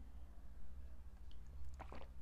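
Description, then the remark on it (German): Mouth sounds of someone taking a sip of water and swallowing between stretches of talking: quiet, wet smacks and gulps over a low steady hum, with a brief cluster of clicks near the end. “ich trinke übrigens mal zwischendurch einen Schluck, weil das ist einfach, ich bin so ein Wassermensch, ich muss irgendwie immer, wenn ich viel rede, ganz viel trinken.”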